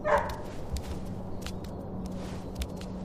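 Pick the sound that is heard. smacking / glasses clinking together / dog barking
dog barking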